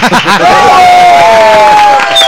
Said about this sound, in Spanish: Muy bien, ahí está el aplauso, señoras y señores. El aplauso de hoy.